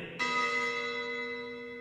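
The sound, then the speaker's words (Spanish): A school bell sounds once with a sudden bright strike, then its clear metallic tone rings on steadily and fades only slightly, heard alone with no voices. “Que suene la campana que quiero el recreo.”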